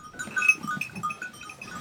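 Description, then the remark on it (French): A flock of sheep bleats on the Chamchaude mountain pasture in overlapping, wavering calls, fairly faint, with several animals calling at once outdoors. “Et Chamchaude, bah, sur la montagne de chame-chaude, ce sont les moutons.”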